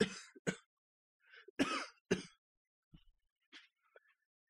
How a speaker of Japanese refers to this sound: 咳込みます。